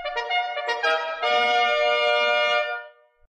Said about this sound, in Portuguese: A corneta tá cantando, hein? A galera dizendo que o Matheus Nascimento é muito fraco.